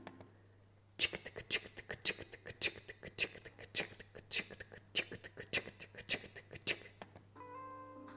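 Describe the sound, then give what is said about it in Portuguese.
A voice imitates a ticking clock with sharp mouth clicks repeated in a steady, quick rhythm for about six seconds, with no words spoken. “quero-vos dizer que este barulho tchic, tchic, tchic, é a minha tentativa de imitar um relógio.”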